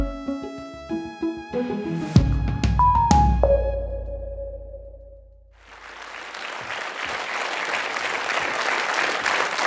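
A short bright musical jingle rings out and fades, then a studio audience in the studio of the media magazine Kurer breaks into loud, sustained applause welcoming the host, continuing steadily to the end, with no talking.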